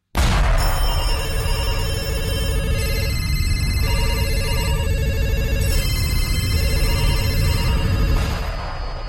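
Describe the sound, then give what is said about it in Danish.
An old telephone rings insistently in long, unbroken bursts, with a loud, rattling bell quality and bright tonal overtones, repeating about three times with brief breaks and no talking. “Og fortidstelefonen, det er jo den her telefon, som du har fundet på din morfars loft, som er en telefon, der kan ringe til forsiden.”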